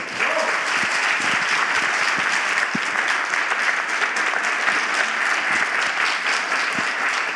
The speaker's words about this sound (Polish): Bardzo proszę o gorące oklaski na początek dla tłumaczki